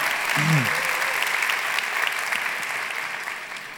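Sustained audience applause for a woman who has just given a testimony, a dense, steady wash of many hands clapping that holds loud for nearly four seconds before easing slightly, with a brief low vocal tone near the start.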